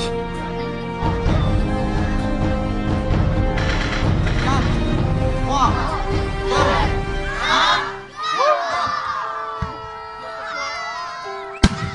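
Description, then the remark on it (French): Fireworks crackle and rumble at night beneath a loud, excited crowd cheering and children shouting. The noise swells for several seconds, then thins out, ending with a sharp bang. “Et là, nos yeux illuminés d'étincelles et de feux d'artifice.”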